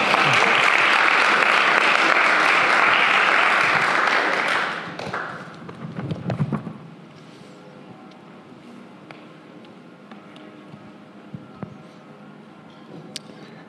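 Audience applause rings out as a dense, steady wash of clapping for about five seconds, then fades quickly into a quiet room tone with a few scattered taps and small noises.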